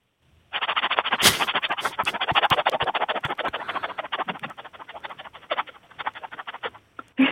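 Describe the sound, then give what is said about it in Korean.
A 19-year-old imitates a pressure cooker cooking rice live with their voice: a loud breathy hiss broken by rapid sputtering, rattling pulses that runs for about six seconds before stopping abruptly. “자, 압력 밥솥 밥 되는 소리입니다.”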